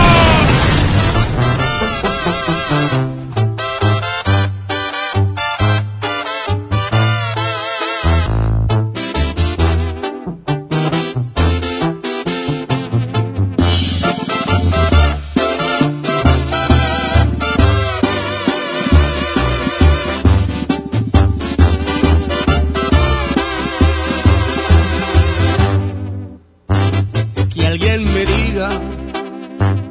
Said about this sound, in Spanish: grita: ¡Musiquita!